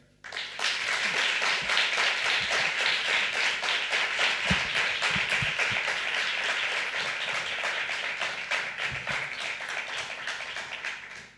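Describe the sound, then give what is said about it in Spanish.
A crowd at a radio program applauds steadily to welcome the director of a documentary, dense overlapping claps at an even loudness throughout, with no voices, before the clapping tapers off at the very end. “Recibimos con el mejor de los aplausos a la directora de este documental absolutamente necesario por su emoción y por su verdad.”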